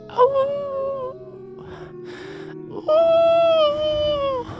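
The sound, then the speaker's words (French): A person's voice mimics a wolf howl: two long, sustained wailing tones with a breathy, hissing pause between them, fairly loud. “Là, genre, t'entends genre un loup, mettons.”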